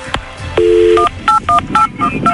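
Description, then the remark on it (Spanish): A telephone number being dialed for a call from a radio programme: a steady two-tone beep followed by a quick series of short, evenly spaced touch-tone beeps at varying pitches, loud and clear with no voices. “Vamos a marcar.”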